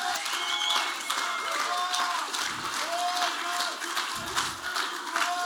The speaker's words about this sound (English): If you believe that, why don't you shout out, stand up, clap your hands, all you people. Shout unto God.